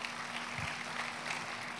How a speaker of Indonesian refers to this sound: Kita kasih tepuk tangannya boleh meriah buat Tuhan kita.